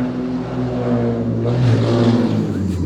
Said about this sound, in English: boy, that car was struggling.